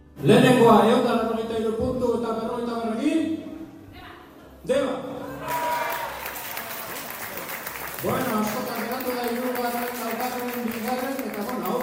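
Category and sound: crowd, audience applauding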